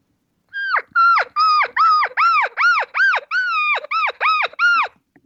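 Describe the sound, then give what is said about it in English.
An elk cow, leaving the bull she was with, mews in a rapid, insistent series of about ten high, nasal, rising-and-falling calls, loud, with no one talking. “They they meow. They they they mew very fast when they do it.”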